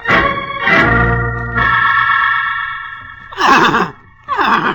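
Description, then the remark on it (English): A horse in a stall at night whinnies loudly, a long shrill neigh followed by two shorter, rougher snorting whinnies, with no talking. “whoa, whoa, Gray Pasha, whoa. Holmes, perhaps we better leave the stall. This horse seems on edge tonight.”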